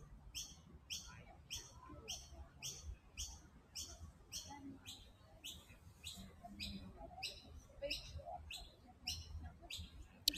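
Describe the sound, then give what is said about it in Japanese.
Birds chirp outdoors on a fine-weather day in quick, regular bursts of high tweets repeating steadily over a low background rumble, clear throughout. “鳥の声聞こえますかね”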